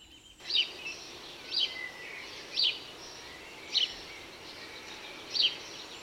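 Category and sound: bird, house sparrow chirping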